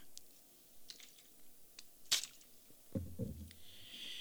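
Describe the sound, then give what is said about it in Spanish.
Someone takes a quiet sip of water: a sharp click of a cup or bottle, then soft wet gulping and swallowing sounds, with no talking. “voy a tomar un poquito de agua porque esto me da sed realmente.”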